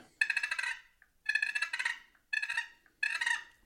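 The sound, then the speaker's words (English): Four rolling, trilling turkey purrs, a feeding call, made by grinding the lid of a wooden box call, each a rapid rattling burst under a second long with brief pauses between, fairly bright and moderately loud, with no talking. “but a purr is a feeding call.”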